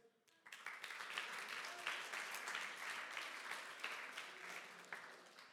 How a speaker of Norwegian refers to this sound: Ja, Utrolig bra. En applaus.